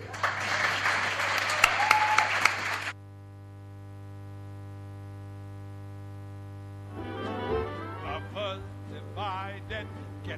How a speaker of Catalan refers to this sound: Ara, els turistes que hi ha al meu al museu aplaudeixen. Vosaltres, el públic que els escolteu per la ràdio sou els turistes. Aplaudiu, aplaudiu!